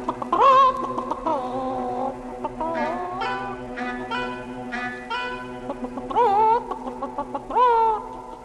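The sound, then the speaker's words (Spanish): A rooster and chickens cluck in a busy barnyard, with several loud, rising squawks standing out among steady bursts of clucking. No voices are heard. “Aprendan primero que aquí en el corral su padre, el gallo, es la autoridad.”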